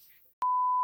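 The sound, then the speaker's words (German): A single steady electronic beep, a clean mid-pitched tone held for about half a second with sharp onset and cutoff, following a brief faint hiss: a Google voice assistant switching on and only beeping. “Äh, oh, es ist Google angegangen. Eine Sekunde.”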